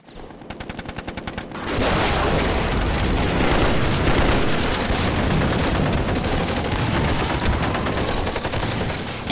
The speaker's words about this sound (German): Die Geschosse prasselten von überall auf sie nieder und rissen einen ihrer Kameraden regelrecht in Stücke.